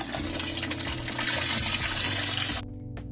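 A steady rush of flowing water, like a stream, fills the scene loudly and evenly before stopping abruptly near the end, with a soft low musical drone underneath.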